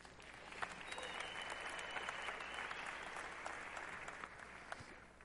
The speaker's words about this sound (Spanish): Un aplauso para el chiquitito.